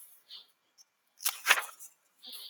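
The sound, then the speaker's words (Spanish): Soft papery rustles and flutters as someone flips the pages of a physical book, a few quick brushes building to a denser riffle in the middle, fairly quiet, with no voices. “aquí tengo el libro. Pueden oír cómo pasó las hojas.”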